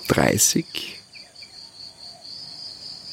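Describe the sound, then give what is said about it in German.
A morning wildlife chorus on Bali at 6:30 am as the sun rises, among large bamboo and leafy plants, dominated by a steady, high-pitched insect trill that pulses continuously in the background, following a brief louder burst of noise at the very start. “Und wie du im Hintergrund hören kannst, ist auch die Tierwelt unglaublich.”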